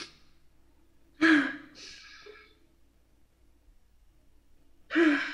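Loud breathing as a person takes deep breaths on request: a sharp deep inhale followed by a softer exhale, a pause, then another sudden deep gasping breath at the end. No talking.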